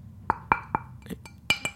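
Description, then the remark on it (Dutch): Someone taps a ceramic wall tile about six times in an uneven rhythm, each tap a short, bright clink with a brief ring. The taps are fairly quiet and heard on their own. “Ik ga het even laten horen dat het echt is.”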